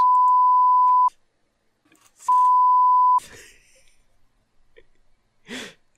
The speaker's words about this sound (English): On the next episode of. Except all people are hearing is beep.